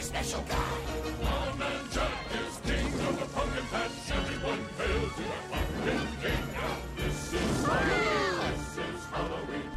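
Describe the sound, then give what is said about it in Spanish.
A spooky, Christmassy film soundtrack song plays loudly and steadily, dense layered music with sharp percussive hits throughout and a swooping, wavering vocal line near the end. “Nada más de oír esta canción, sientes el rollo navideño y spooky.”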